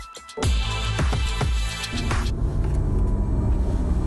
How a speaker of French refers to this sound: C'est le tout premier modèle 100% électrique de Porsche, c'est le Taycan.